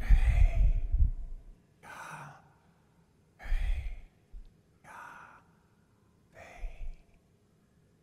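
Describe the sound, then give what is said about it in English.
Slow, deliberate breaths drawn in and pushed out, about five airy whooshes spaced evenly with short pauses, fairly loud, like a calm sighing breathing exercise with no talking. “He says, when you inhale, it's, ah, and when you exhale,”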